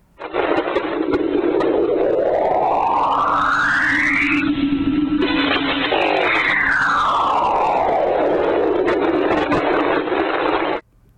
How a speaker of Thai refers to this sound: อันนี้ฟังดูน่าขนลุกไหมครับ อันนี้เนี่ยนาซาเขาตั้งชื่อเอาไว้นะครับว่า Enceladus Scream นะครับ หรือว่าเสียงกรีดร้องของดวงจันทร์ Enceladus ครับตัวนี้เนี่ย เป็นเสียงที่บันทึกเอาไว้ในช่วงประมาณปี 2005 นะครับ